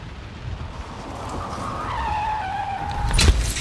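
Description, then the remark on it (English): Tires screech in a long, falling squeal as a car skids in heavy rain, ending in a sudden heavy thud as the car hits a man. No one speaks. “Holy shrimp, I hit a guy!”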